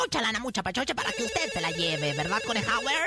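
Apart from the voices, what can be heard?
telephone ringing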